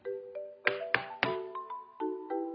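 Three sharp knocks on a door in quick, even succession, over a soft sustained musical backdrop of gentle tones that continues after the knocking stops.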